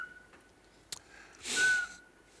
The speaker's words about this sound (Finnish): Siis tässäpä pöllö, joka ei huhuile. Vieno vihellys. Näin on. Ja siinä auringonlaskun jälkeen heti voi kuulla tällaisen vihellyksen metsästä.